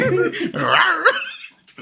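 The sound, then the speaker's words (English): A chihuahua lets out a quick run of high, whiny yaps and yelps, loud for about a second and a half before trailing off into quieter noises. “That's a dog, homie.”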